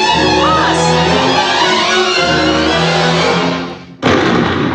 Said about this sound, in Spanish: Otro disparo.